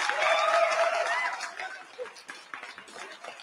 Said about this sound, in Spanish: El aplauso por ahí.